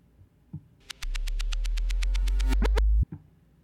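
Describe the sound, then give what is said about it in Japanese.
A synth C note played in reverse: a low tone swells up for about two seconds with repeated pulsing high harmonics growing denser, then cuts off abruptly. No one talks over it. “逆再生したらこんな音になるんですよねもう一回いきます最後いい感じですよね。”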